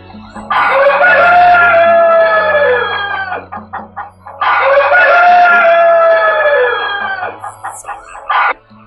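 A rooster crows twice in long, loud, harmonically rich calls, each followed by a scatter of short, choppy hen clucks between and after the crows.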